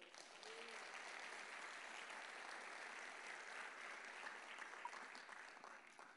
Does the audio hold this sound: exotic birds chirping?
no